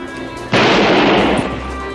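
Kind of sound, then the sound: sound effect, gunshot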